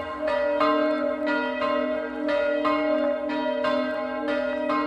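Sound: church bells ringing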